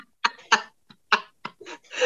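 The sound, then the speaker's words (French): A fit of coughing: five or six short, harsh bursts in an uneven rhythm with brief pauses between, ending in a longer rasping cough, with no talking. “C'est à mon tour de tousser.”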